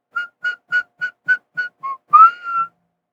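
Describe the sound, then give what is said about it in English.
A person whistles a short movie theme tune: seven quick, evenly spaced notes followed by a longer sliding note that holds and fades, with no talking. “Yeah, the, the whistle tune.”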